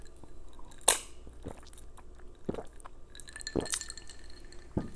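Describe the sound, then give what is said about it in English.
Someone gulps lemonade from a glass, with a handful of wet swallowing sounds and faint glass clinks spaced irregularly over a few seconds, fairly quiet, with no talking. “That was me gulping a lemonade, and it's because it tastes so daggone good.”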